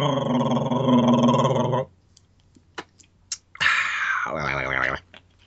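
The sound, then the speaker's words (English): Dogs bark and growl in the distance in two drawn-out, loud bursts, the first lasting nearly two seconds. The second follows after a pause filled with a few faint clicks. “I heard dogs barking in the distance.”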